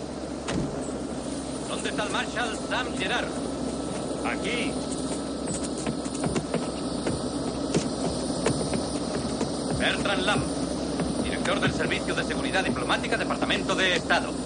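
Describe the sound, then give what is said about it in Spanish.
A helicopter lands near a restaurant, its loud, steady engine roar a dense rumbling drone with a whining edge that holds throughout, with muffled voices partly buried beneath it. “Sam y su equipo salen del restaurante y observan el helicóptero que aterriza cerca de ellos.”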